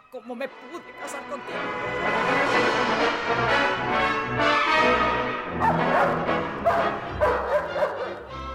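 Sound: dog barking and whimpering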